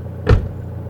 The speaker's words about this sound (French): Je n'ai jamais entendu la porte s'ouvrir. Je l'ai seulement entendu se refermer.